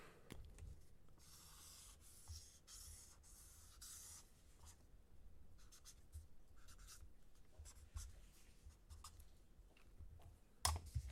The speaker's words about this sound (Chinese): 好，等一下，等一下，我用粗一点的笔。抱歉，抱歉。好，稍等我一下哦。